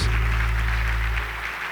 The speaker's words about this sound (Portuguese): Pode dar uma salva de palmas para Jesus?